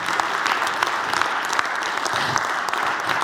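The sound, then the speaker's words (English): A church audience applauds its technical team steadily, many hands clapping in a dense, even patter that holds at a fairly loud level throughout, with no voices standing out. “Let's clap our hands for our technical team.”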